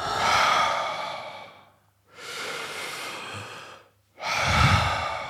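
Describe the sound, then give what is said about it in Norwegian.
Slow, deep breaths drawn in through the mouth only, each a long, deep inhale, then let out in a loose, releasing exhale; three long airy passes with brief pauses between, no talking. “Og så innpustet er ganske sånn langt og Lenge? Og, langt og dypt, liksom?”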